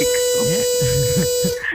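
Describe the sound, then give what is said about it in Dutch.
A loud, steady buzzer hooter blares continuously in one harsh, flat electronic tone for well over a second, then cuts off, with voices talking underneath it. “Oh, toeter.”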